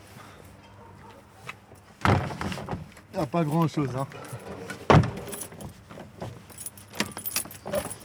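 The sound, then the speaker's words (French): A heavy metal cemetery gate at the Ixelles cemetery is swung and clanged shut, with a loud impact, rattling metallic jangling, and a second sharp bang, while a man speaks briefly. “C'est des vraies portes de cimetière ici.”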